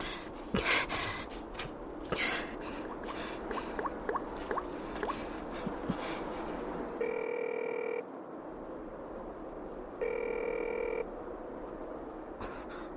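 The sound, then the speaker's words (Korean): A phone ring tone from a call to a reporter sounds in two steady, one-second tonal bursts a couple of seconds apart, repeating unanswered over a dense, croaking background of frogs and chirping night creatures. “왜안 받으시지?”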